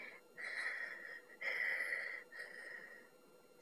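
Three steady, wheezy snores in a slow rhythm, each drawn out for about a second, fairly loud with brief pauses between them and no talking.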